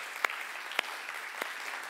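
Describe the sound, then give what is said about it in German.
Soft, steady audience applause for the technical crew forms a dense patter of many hands, with a few sharper individual claps standing out above it; no one speaks. “Hey, einen Applaus einmal für die Technik.”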